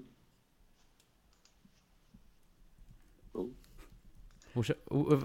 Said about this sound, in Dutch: Eh, ik eh, we horen jou nu ook typen